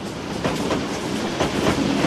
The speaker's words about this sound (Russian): 28 февраля 1918 года. Специальный поезд – подошел к главному перрону Вологодского вокзала.